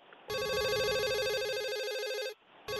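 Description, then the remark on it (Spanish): A telephone rings loudly with a rapid warbling electronic trill, one long burst lasting about two seconds, a short pause, then the next ring starting. No voices. “Y a propósito de datos curiosos, ¿cómo contestas tú cuando suena el teléfono?”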